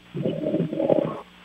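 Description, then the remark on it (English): A single low, rumbling snore from a man, about a second long and fairly loud, comes through a thin, muffled telephone line with no talking over it. “Oh, he's got a little snoring situation.”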